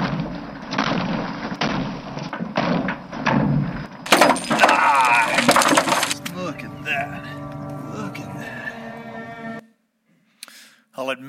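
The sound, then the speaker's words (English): Huge hailstones crash down in a loud, dense clatter of hard impacts for several seconds, then muffled voices talk as the pounding eases, before a brief silence. “that's the biggest hailstone I've ever seen right there.”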